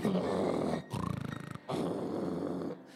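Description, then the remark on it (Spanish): A voice mimics heavy, loud snoring: a long rumbling inhale, a fluttering rattle in the middle, then another drawn-out rasping snore, with no words. “Mira, hay uno, mira hermano, hay gente que ronca de una manera increíble, impresionante.”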